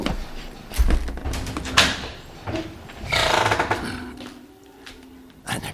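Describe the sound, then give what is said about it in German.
A heavy door is worked open with a series of wooden knocks and thumps, then a long creaking, scraping swing, followed by a final clunk, fairly loud with no talking. “Na, was ist das für eine Tür? Die habe ich zuvor noch nie gesehen. Öffnen,”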